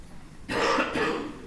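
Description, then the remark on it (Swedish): A museum visitor coughs twice in quick succession, a short, harsh, throaty burst, moderately loud, with no talking around it. “och det där var alltså en museibesökare och inte vi som hostade.”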